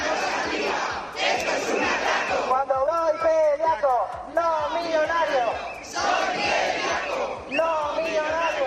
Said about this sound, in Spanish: han marchado al grito de sin gluten y sin pasta